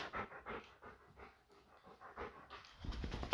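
A dog pants softly and rhythmically close by, quick breaths repeating in short bursts, then a louder rustling bump near the end.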